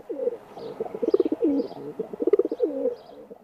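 Feral pigeons coo in repeated soft, throaty rolling phrases, several birds overlapping in a steady murmuring chorus with no one talking, in Kupittaa park in Turku, Finland.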